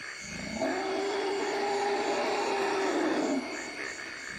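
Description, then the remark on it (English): A forest elephant lets out one long, low rumbling call lasting about three seconds, steady and resonant, over a constant droning background of forest hum. “this forest elephant piece is especially moving because you can literally feel the vibrations in your body.”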